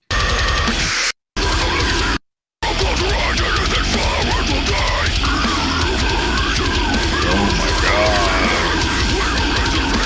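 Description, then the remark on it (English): A loud, dense nu metal track with heavy distorted guitars and harsh screamed vocals, playing steadily apart from two brief dropouts near the start. “Gonna, listen, not listen gonna be some new metal.”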